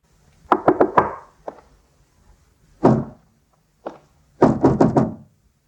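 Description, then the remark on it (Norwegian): Several firm knocks on a wooden door, coming in quick bursts of three or four raps with pauses between, clear, followed by a couple of heavier single thuds. “This is a door.”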